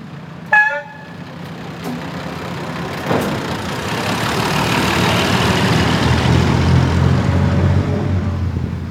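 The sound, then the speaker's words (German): A short horn toot sounds at the start, followed by the steady low rumble of a rail bus engine running on the line between Linz and Kahlenborn station at about 30 km/h, building slightly and droning on without any talking. “20 Minuten Fahrt kommt der Schienenbus im Bahnhof Kahlenborn an, steht dort etwa 5 Minuten und fährt wieder zurück nach Linz.”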